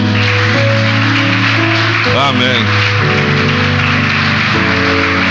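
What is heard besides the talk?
audience applause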